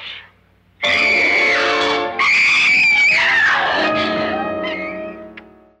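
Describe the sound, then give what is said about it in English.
A woman, the character Nora in a Vincent Price film, lets out a long, piercing scream, loud, rising and wavering in pitch across several seconds before breaking off, with a faint sound fading at the end. “Yes, and who has one of the most iconic screams, I think.”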